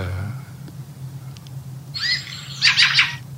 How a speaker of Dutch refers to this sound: Ja, zo'n wiebeltje zit er voor. En, dat, maar dat diepe tjak-tjak, dat is echt een geluid wat bijna geen andere lijster maakt in Nederland. Dus daaraan kan je hem echt gewoon goed herkennen.